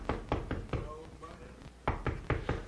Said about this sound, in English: You know what the Lord does when people come to church that don't know Christ? He knocks. He knocks. He knocks. He knocks.